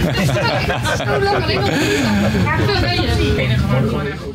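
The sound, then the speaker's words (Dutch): Steady chatter from many people talking at once fills a busy train compartment, a continuous babble of overlapping voices over a low rumble of movement. “Dat het is hier gezellig in de coupé, ik hoorde je vraag niet.”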